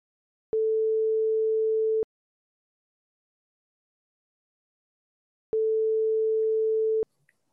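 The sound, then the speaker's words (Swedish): A phone's ringback tone sounds twice as a call is placed to a friend, each a steady, low electronic hum lasting about a second and a half, separated by a long silent pause. Clear, with no voices. “jag ska ringa till min vän Sandra”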